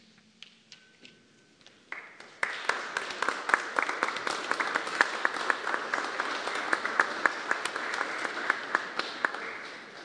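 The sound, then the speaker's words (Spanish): An audience applauds award-winning teachers at an awards ceremony, breaking into applause after a quiet start, many hands clapping in a dense, steady patter that builds within a couple of seconds and holds strong to the end. “el reconocimiento de nuestro aplauso para todos los maestros galardonados.”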